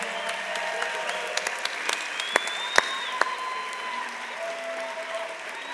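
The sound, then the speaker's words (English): A church audience applauds newly baptized people steadily for several seconds, a dense wash of many hands clapping with a few sharper, louder claps standing out and faint crowd murmur beneath. “Let's give all of them a hand for their baptism.”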